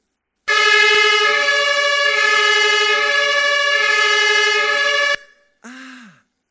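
A loud, brassy German emergency vehicle siren horn (Martinshorn) blares steadily for about five seconds, then cuts off and a short, falling-pitched blast follows. No one speaks.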